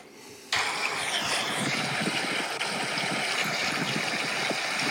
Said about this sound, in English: That's just the sound of me floating down the river.